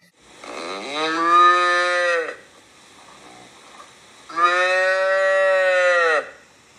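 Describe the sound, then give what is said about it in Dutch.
Two long, loud calf moos, each lasting about two seconds with a rich harmonic bleat, separated by a brief quiet pause; clear with no talking. “Kalvervocalisaties.”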